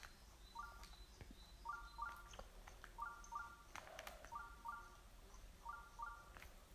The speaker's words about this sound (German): Schrein in der Nähe. Der Schreinsensor tickt auf jeden Fall hier aus.